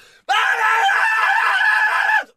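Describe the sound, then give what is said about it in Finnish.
A person lets out a loud, sustained scream lasting about two seconds, shrill and strained, imitating a terrible shriek heard as a front door is opened, then cuts off abruptly into silence. “Ja saman tien kun avaa oven, niin hirveä huuto semmoinen.”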